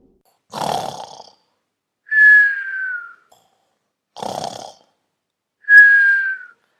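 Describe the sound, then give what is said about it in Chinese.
A voice imitates the snoring of the big mouse in a children's story twice: each time a rough, rasping inhale is followed by a clear, high whistle that slides downward, with brief silences between the loud cycles. “大老鼠，大老鼠，你打呼了。”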